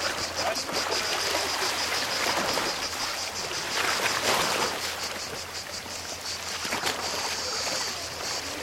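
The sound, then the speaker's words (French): Sea water washes continuously against the shore at Kamenjak, Croatia, in a steady rush with gentle surges, while a shrill, pulsing cicada buzz runs high above it throughout. “On a enregistré la mer, les cigales, c'est beau.”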